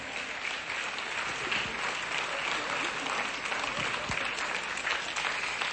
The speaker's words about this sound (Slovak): Jeden veľký potlesk poprosíme. Ďakujeme ešte raz.